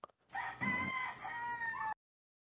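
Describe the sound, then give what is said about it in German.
A rooster crows once, a loud, sustained cock-a-doodle-doo lasting over a second with a rising then drawn-out tone, preceded by a brief soft click and no talking. “Hähne, die Hähne, Hähne, Hahnen äh, sind urlaut.”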